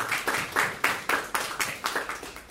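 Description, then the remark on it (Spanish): A crowd claps together in a steady, brisk rhythm, each clap landing about a quarter second apart, moderately loud with no voices over it, applauding for the Lord. “Un fuerte aplauso para nuestro Señor.”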